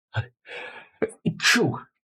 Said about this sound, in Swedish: jag måste nysa.